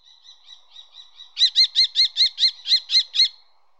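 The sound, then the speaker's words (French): A common kestrel calls in Paris, giving a rapid, shrill kee-kee-kee series: about six softer notes, then nine loud, evenly spaced calls, with no other sounds around. “Aujourd'hui, le faucon tressorel.”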